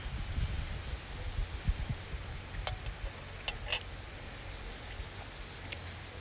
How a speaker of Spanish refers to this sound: Mientras grabo esto, las gotas caen en mi pie. Comienza a llover.